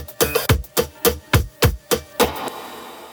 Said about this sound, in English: Kanibal Radio in Athens, Greece created the signature sound you just heard.